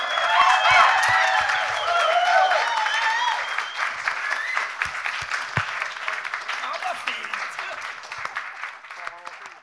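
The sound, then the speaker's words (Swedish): A large audience bursts into loud, sustained applause on a Tuesday as the big drummer prize is presented to Robert Eriksson, with whoops and cheering voices rising over the clapping at first, then steady clapping that tapers off slightly toward the end. “Så där lät det i tisdags när jag hade den stora äran att dela ut det stora trummispriset till Robert Eriksson.”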